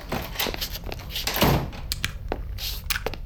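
A manager's office door slams shut, followed by a scatter of heavy thumps and sharp knocks as objects, including a desk chair wedged under the doorknob, are shoved against it to barricade it, with faint voices mixed in.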